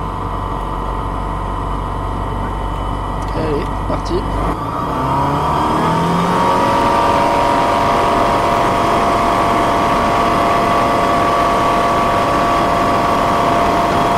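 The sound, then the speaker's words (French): A small propeller aircraft engine runs up for takeoff after takeoff clearance, its droning tone rising in pitch over the first few seconds and then holding a loud, steady roar. “Allez, décollage autorisé, on prend une grande respiration.”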